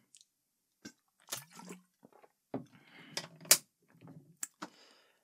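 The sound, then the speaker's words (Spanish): Someone drinks water in a walk-in closet surrounded by boxes and blankets: a few sharp clicks and crinkles from handling a bottle, then scattered sips and gulping swallows at an uneven pace, with no talking. “Voy a tomar agua, dame un segundo.”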